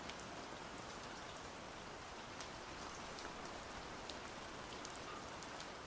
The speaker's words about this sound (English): Go sit outside in the rain. Just sit in it. Let it fall on your face.